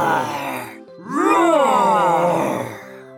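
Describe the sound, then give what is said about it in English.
A person growls out a playful tiger-like roar, a low rising and falling vocal groan held for about two seconds after a brief lead-in, loud with no words. “Listen to me roaring. Roar!”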